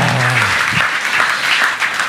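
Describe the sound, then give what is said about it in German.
A crowd claps steadily for about two seconds, a dense, even wash of hand claps with no pauses, while a low hum sounds briefly at the start. “nochmal einen Applaus, das macht er super gut, oder?”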